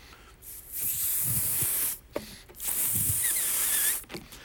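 An air-filled balloon is squeezed, pressed from the outside and rubbed in two long stretches, giving a hissy, rubbery friction with faint squeaks, separated by a short pause. No one speaks.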